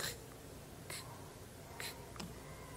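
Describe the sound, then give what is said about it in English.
A voice imitates computer mouse clicks of someone sitting at a computer idly clicking away: four short, crisp clicking sounds at an uneven, unhurried pace, fairly quiet, with no talking in between. “just clicking away, no particular thing in mind, maybe.”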